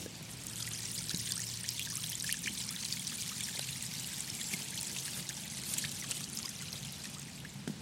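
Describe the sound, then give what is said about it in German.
A small brook babbles and trickles steadily through a tiny patch of woodland next to a school, a continuous bright gurgling wash of water with no voices, holding an even level throughout. “Aus dem kleinen winzigen Waldstück hier neben der Schule, äh, durch das sogar ein kleiner Bach fließt.”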